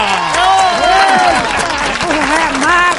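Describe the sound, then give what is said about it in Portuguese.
Loud, steady audience applause welcoming the first contestant of the show fills the whole stretch, a dense wash of clapping with cheering voices and rising shouts mixed in. “Vamos agora receber com aplauso o primeiro candidato de hoje.”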